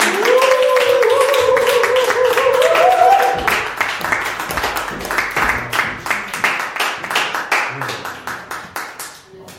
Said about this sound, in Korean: 큰 박수로 맞아주시기 바랍니다.